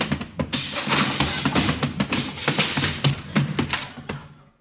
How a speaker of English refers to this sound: Well, what's all that noise? Can't get my horse out of the phone booth.